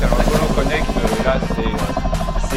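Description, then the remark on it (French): Loud Boeing Chinook helicopter rotors throbbing steadily, a dense low droning roar with a rapid pulsing beat that holds for the whole stretch, with a voice partly mixed underneath. “For 60 years, the Chinook has been the paragon of strength, speed, and agility.”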